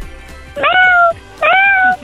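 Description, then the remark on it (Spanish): A child's voice imitates a small cat, giving two high, drawn-out meows in quick succession, each rising then sliding down in pitch. The meows are fairly loud, with no talking. “Ahora de un gato más chiquito.”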